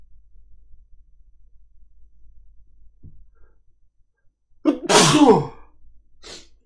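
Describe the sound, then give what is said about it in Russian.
A single loud sneeze bursts out after several seconds of near silence, a sharp voiced intake snapping into a hissy blast, followed by a faint sniff. “Будь здоров, спасибо.”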